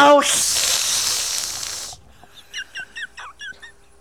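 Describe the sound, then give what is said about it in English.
A person imitates a snake with a loud, sustained breathy hiss lasting almost two seconds, followed by a quick run of short, high chirping squeaks. “that was a good hissing noise.”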